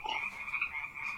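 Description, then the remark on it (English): A dense chorus of frogs croaking steadily in ditches, a continuous trilling buzz from many animals at once, fairly loud with no voices over it. “that is the f- sound you hear when frogs sing loudly in the ditches.”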